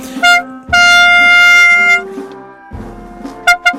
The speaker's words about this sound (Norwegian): Men hva er det jeg driver med, da? Jeg kan jo ikke sitte her og, og spille på mitt lufthorn.